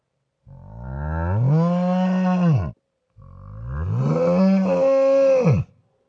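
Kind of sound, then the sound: animal, cow mooing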